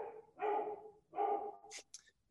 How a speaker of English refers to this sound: but uh, the cameo from my dog.